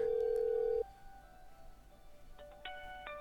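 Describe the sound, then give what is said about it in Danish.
Telephone answering machine sounds from a machine holding six new voice messages: a loud, steady electronic beep lasting under a second, then a quiet pause and a few short, clipped electronic tones near the end, with no talking. “Men i mellemtiden har vi fået et andet tip på vores telefonsvarer.”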